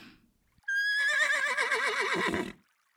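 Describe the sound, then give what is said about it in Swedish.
A horse neighs once, loud, a long shrill whinny that wavers and trembles before fading out, with no one speaking. “Detta väsen tar sig dock i skepnad av en vacker häst som lockar till sig barn till att vilja rida den.”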